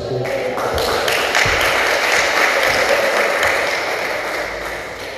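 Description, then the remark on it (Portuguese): An audience applauds God at a pastor's invitation, breaking into sustained applause, a dense steady crackle of many hands clapping at once, loud throughout and tapering slightly toward the end, with no one speaking over it. “Pode aplaudir Deus com você.”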